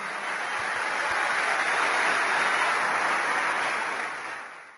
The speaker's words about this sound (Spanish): vamos a darle un fuerte aplauso y agradecerles también.